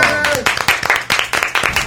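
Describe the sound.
A short burst of applause during a Spanish-language program, greeting a woman: a few hands clapping in quick, uneven rhythm, loud and bright, with voices talking underneath during the opening moments.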